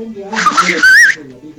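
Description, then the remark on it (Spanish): A short, breathy attempt at whistling, wavering up and down in pitch for about a second, fairly loud, with voices murmuring underneath and after. “Pero hay que practicar un poco el chiflido.”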